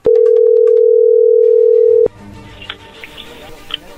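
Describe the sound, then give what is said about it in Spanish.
A steady, loud single-pitched telephone dial tone holds for about two seconds as a call is placed, then cuts off abruptly, leaving low background noise and faint murmuring. “Vamos a llamarle y vamos a ver si te manda los chocolates a ti”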